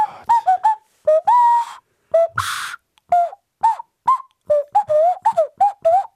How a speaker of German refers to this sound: Also es ist ein, ein, Plastikgerät, das man sich unter die Nase stülpt. Man atmet dann durch die Nase aus und formt aber mit dem Mund die Töne.